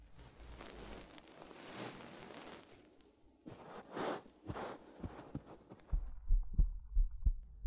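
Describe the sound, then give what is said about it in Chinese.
Soft fabric rustling and shuffling gives way to a steady, muffled human heartbeat, heard with an ear pressed against a person's chest, low thudding lub-dub pulses repeating in a regular rhythm over the final seconds. “能听到我的心跳声了吗？”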